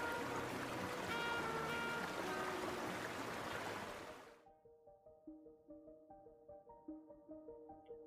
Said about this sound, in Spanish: Vio un puente y se dirigió a su sombra desde donde veía correr el agua.